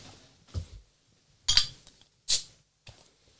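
A bottle of India Pale Lager beer being opened and poured: a dull knock, then two bright, sharp bursts of clinking glass and a hissing pop, followed by a soft tap. No voices.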